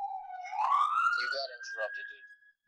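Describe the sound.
A 911 emergency vehicle siren wails on the street outside a house, its pitch sweeping upward and then holding steady at a high tone, fairly loud, while a person talks over it.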